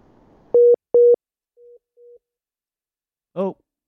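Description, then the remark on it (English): A dropped phone call's busy tone: two loud, steady beeps in quick succession, then two quieter, shorter beeps, with a brief voice fragment near the end. “We've lost coach, him.”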